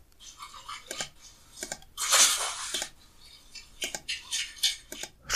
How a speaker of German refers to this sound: schmatzende Schweine sehe ich hier vor mir. Schweine quieken. Hier, das könnte besser sein. Zufriedene Schweinchen. Ich hoffe, man kann es hören. Ja, das sind einfach so ein, ein, ein liebevolles Grunzen.